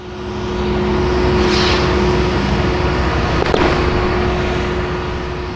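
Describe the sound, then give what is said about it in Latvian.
A tractor's heavy engine drones steadily with a constant low hum as it pushes non-recyclable household waste atop the waste mound at the Getliņi landfill in Latvia, grinding on without pause; a single short sharp crack cuts through partway along. “Uz atkritumu kalna Getliņu poligonā traktors šķūrē sadzīves atkritumus, kurus vairs nevar tālāk pārstrādāt.”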